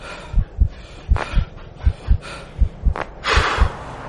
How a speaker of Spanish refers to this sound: Jadeas con dificultad. Te zumban los oídos y tu corazón se te sale por el pecho.